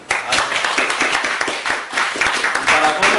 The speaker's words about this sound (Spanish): aplauden, a mí nunca me aplaudieron, me decían, llegaste tarde cuando yo.